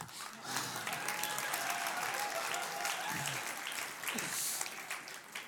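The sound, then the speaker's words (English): A crowd applauds steadily for about five seconds, a dense, even wash of many hands clapping, with a faint high whistle or cheer rising through the middle, applauding a woman who looked after nine children. “I think if I can get her applauded and go away again next time as well.”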